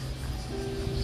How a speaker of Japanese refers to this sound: ねセミが鳴いてますよね聞こえますかね